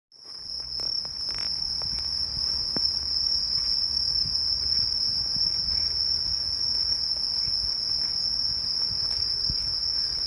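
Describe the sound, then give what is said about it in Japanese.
Bell crickets chirp in a steady, ringing trill that carries on without pause at a park passed on the way to go shopping, with a faint low rumble of outdoor background beneath and no voices. “スズムシのね音がとってもとっても気持ちよくて毎年ねこの今あの公園公園のところを通っているんですが”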